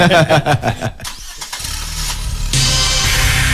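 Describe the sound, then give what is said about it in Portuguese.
An engine catches after a few stuttering bursts, settles into a steady rumble, then climbs sharply to a louder, higher-pitched roar as it revs hard at high RPM, loud. “Alta rotação.”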